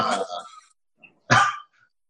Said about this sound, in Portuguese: Tem quatro ah, Yorkshire ah, que esse... late o tempo todo.